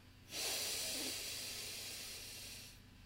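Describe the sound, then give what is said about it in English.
One long, deep breath, a breathy rush of air that starts abruptly, holds for a couple of seconds and slowly tapers off, with no talking. “So first, I want everybody on the on listening to this to join me in a deep breath.”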